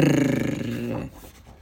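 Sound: lion roaring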